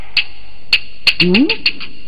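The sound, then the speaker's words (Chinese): A duck quacks in a quick, irregular run of about eight short, nasal, high-pitched calls, with a brief rising vocal sound mixed in partway through. “嗯，明明听见鸭子叫啊，又没看见鸭子，这个问题啊，只怕要来具体的的调查下子看。”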